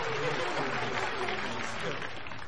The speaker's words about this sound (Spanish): Brona aplaude sonriente.